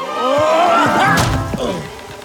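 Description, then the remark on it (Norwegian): A body slams hard against a closed portal: a couple of dull bumps build into one loud crash, with a straining, rising vocal effort around it, as Julius throws himself against the portal into Snøfall, which Vinter has shut. “Julius kaster seg mot portalen.”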